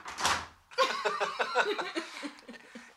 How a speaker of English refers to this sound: Those of you at home listening, and he just ran out of the room, shut the door, slammed the door behind him.